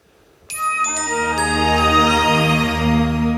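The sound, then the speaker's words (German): An orchestral arrangement of the Windows startup sound swells in abruptly after a brief quiet moment, with bright chiming accents over sustained, rich harmonies that ring out and hold to the end. “we've orchestrated those sounds you get off Windows.”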